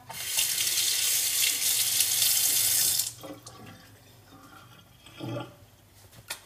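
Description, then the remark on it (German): A kitchen tap runs steadily into the sink for about three seconds, then shuts off, followed by soft gurgling from the drain and a brief louder burble near the end. “Unsere Spiele gibt dann wieder Geräusche von sich.”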